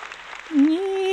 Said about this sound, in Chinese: 多人哈，掌声很热烈的